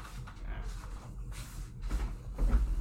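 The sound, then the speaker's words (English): A door is opened with a few soft clunks and rustling handling noises over a low rumble, ending in a slightly louder bump, with faint indistinct voice sounds in the background, as a cat is let in. “Should I let them in?”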